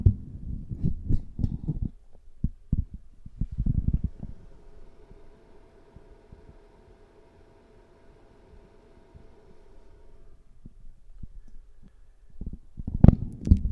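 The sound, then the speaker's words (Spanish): Muffled thumps and rubbing bursts of a microphone being detached from its mount inside an open wardrobe and moved closer, followed by a steady low hum for several seconds, then a few more loud knocks at the end. “Y ahora voy a acercar el micrófono, disculpad por el, ruido que puede hacer al desmontarlo.”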